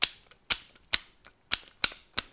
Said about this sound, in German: sie klatschte sich mit Bert ab und er gab ihr Schnipsfinger mit seinen Hufen. Das klang etwa so.